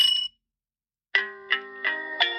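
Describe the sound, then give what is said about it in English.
A gentle, orca-themed electronic alarm tone from an Alexa skill: a brief chime, a short pause, then four soft, evenly spaced notes ringing into one another with sustained tones, clear, with no talking. “this one was called Orcas”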